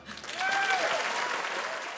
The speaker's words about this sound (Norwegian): Men da publikum klappet